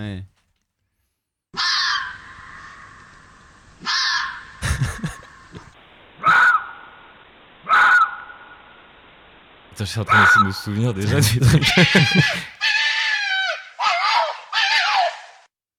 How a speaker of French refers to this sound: c'était le renard. Et c'est un- vraiment un cri assez euh, glaçant hein, quand tu l'entends euh, dans, la, dans la nuit